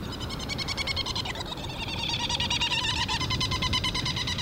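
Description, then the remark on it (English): Many herald petrels (also called Trindade petrels, gadfly petrel seabirds) call together while flying around at their breeding colony on Round Island near Mauritius in the Indian Ocean, with rapid, pulsing trills overlapping in a steady, dense chorus. The calls are loud, and no one speaks. “And these are flying all around us are these amazing gadfly petrels called uh, herald petrel or Trindade petrels.”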